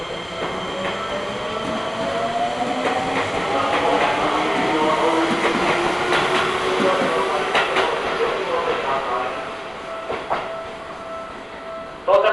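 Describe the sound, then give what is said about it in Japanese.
A four-car train bound for Kokubunji rolls into a station in Japan, its steady rumble and rising wheel squeal filling the platform, with rhythmic clatter and brake hiss as it slows; faint voices are audible in the background. “ホーム到着の電車は国分寺行きです電車とホームの間広く空いているところがございますご乗車の際足元に十分ご注意ください”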